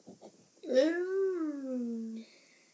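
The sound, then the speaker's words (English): A single long, drawn-out cat meow, fairly loud, rising briefly in pitch and then sliding slowly downward before stopping abruptly. A faint murmur precedes it. “As uh, she becomes a dog, a chicken, and she also becomes a cat.”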